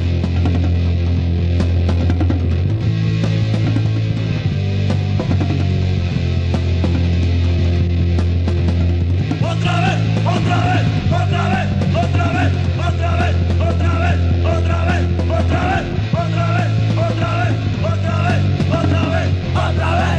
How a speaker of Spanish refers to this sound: La distorsión particular de la guitarra en esta grabación es intensa y podrida